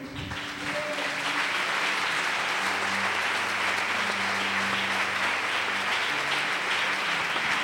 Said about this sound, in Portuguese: Se você crê nisso, aplauda o Senhor.